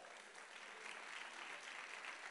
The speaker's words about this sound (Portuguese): Então dá um glória a Deus e aplauda Ele novamente.